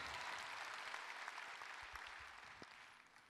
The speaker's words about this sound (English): Now give God hand claps of praise and let's go to the Word of God.